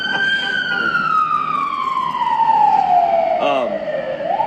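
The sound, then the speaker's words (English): A loud emergency vehicle siren passes by, its steady wail sliding gradually lower in pitch as it moves away, with a brief burst of other noise near the end. “Wait for the siren to go past.”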